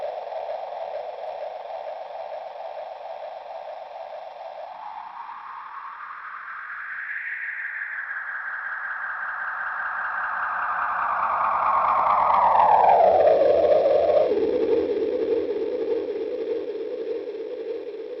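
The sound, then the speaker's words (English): A simple analog delay pedal effect drones in a continuous, self-oscillating wash whose pitch bends upward, holds, then glides back down, growing slightly louder midway. No one speaks. “So it's like a, a pretty simple analog delay, which um you know has its analog problems, but it sounds great.”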